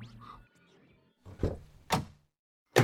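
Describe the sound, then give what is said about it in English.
Three heavy, thudding knocks on a door by police, spaced unevenly about half a second to a second apart, loud, after a brief murmur of voice at the start. “They could even come knocking on our door.”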